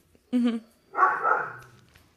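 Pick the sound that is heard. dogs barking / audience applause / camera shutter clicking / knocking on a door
dogs barking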